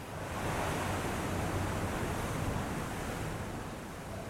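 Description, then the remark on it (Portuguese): Steady, broad rushing wash of ocean surf, fairly loud, with a continuous roar rather than distinct individual crashes. No voices are present. “Um dos desejos da Micaela era que o Francisco conhecesse o mar.”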